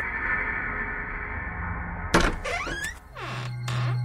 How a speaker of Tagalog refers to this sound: Kumatok ako sa malaking nara na pintuan ng lumang bahay. Isang matandang katulong ang nagbukas ng pinto.